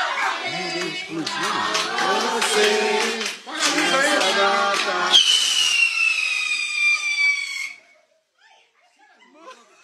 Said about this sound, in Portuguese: Cara da minha mãe, meu marido trouxe a vela errada espada e explodiu o bolo.